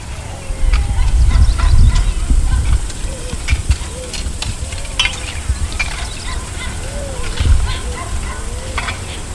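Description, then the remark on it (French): A dense jungle ambience at the roadside, with the car engine off: a steady insect hiss overhead, scattered bird and fowl calls, occasional sharp knocks of farmers' machetes striking maize, and a low rumble swelling and fading beneath, with faint voices mixed in. “Quand on s'arrêtait en pleine jungle sur le bord de la route, le contact éteint nous rattrapait quand même le vacarme frissonnant des insectes, des bêtes, du végétal chahuté par les oiseaux, des coups de machette sur le maïs que donnent les paysans.”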